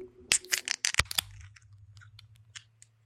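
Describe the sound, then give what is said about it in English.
Beer cans cracked open for drinking, several sharp snaps in quick succession followed by a soft, scattered fizzing hiss over a low steady hum. “Well, there's only way to find out, and that's to crack them open and start drinking.”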